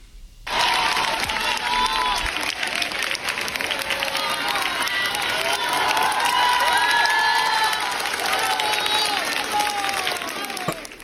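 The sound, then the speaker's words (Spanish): A crowd of women who work at the court, including lawyers, claps and cheers without pause for about ten seconds to welcome the female chief justice arriving at the Palace of Justice, seat of the Supreme Court: dense steady applause layered with many high voices shouting, whooping and calling out in welcome. “Las mujeres que trabajan ahí la recibieron con aplausos y ovaciones.”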